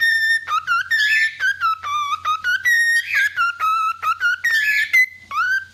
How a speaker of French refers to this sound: Bah oui, c'est juste une perruche. Une perruche qui a sans doute beaucoup trop entendu la musique de Tetris dans sa vie.